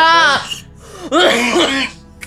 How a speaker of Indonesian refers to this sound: Ini ripuh deh anjing batuknya cewek iya